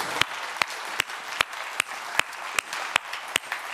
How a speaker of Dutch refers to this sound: Dat is de Heer die wij dienen, lieve mensen. Dat is onze koning. Dat is onze koning. Zullen we hem een applaus geven? Koning Jezus.